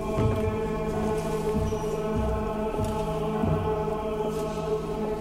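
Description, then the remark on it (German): Muffled, uneven footsteps from outside thud softly into a church, echoing over a steady low drone. No one speaks. “In der Kirche hört man Schritte, die von draußen reinklingen.”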